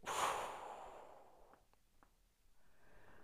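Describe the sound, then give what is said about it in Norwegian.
A long, deep exhale through the mouth during a guided breathing exercise, loud and breathy at first, then trailing off into softer airy breath with a few faint clicks. No one speaks. “Og så Når du puster ut”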